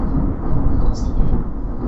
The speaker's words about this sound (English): whoa. That was insane. It's like a thunderstorm in the middle of the day.